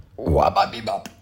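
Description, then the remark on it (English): A single short burp, low and throaty, fairly loud, lasting under a second with no talking over it. “That was a burp.”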